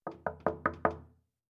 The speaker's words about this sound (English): Then there were several soft knocks on the door.